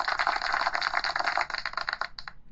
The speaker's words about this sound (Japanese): なんか久々かも、この 拍手音。